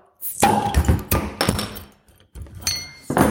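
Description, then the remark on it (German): Bottles being popped open one after another, several sharp, loud pops at irregular intervals mixed with glassy clinks and clunks, with no one talking. “Es gibt das Kommando. Fertig. Los. Plopp.”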